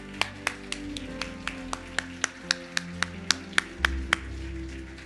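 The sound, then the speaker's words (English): A steady run of sharp, distinct handclaps in an even rhythm, sounding like a small group clapping in unison over a low background hum: the women applauding the men on a Father's Day morning, with no one speaking. “Let's give these guys a hand this morning.”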